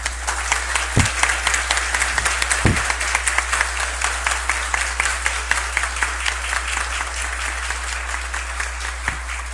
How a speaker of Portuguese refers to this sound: Todos nós merecemos esses aplausos, mas é porque quando eu entrei, meu olho foi logo ali, eu disse, muito bem, ela está ali.